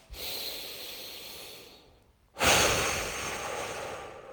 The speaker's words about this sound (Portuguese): Respira, em vez de ser só um. Você pode ir para uma respiração de dois segundos, ó.